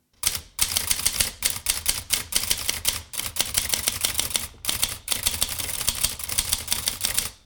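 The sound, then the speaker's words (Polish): Rapid, uneven mechanical clacking of a typewriter mechanism, with dense bursts of sharp clicks and brief pauses, fairly loud, with no voices. “No i oczywiście wykorzystać zarejestrowane kiedyś dźwięki maszyny do stworzenia instrumentów muzycznych.”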